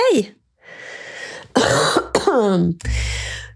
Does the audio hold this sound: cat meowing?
no